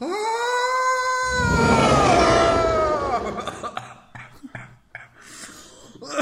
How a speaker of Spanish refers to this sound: quiero que pegues un jalón al tabaco y eches un buen grito santero para empezar esto como es.